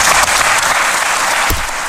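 Dense, steady applause from a large studio audience fills the whole moment, a continuous wash of many hands clapping at close range with no voices breaking through.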